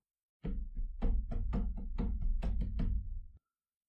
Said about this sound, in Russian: В очередной раз проснувшись, я был уверен, что разбудил меня топот ног по дощатому полу.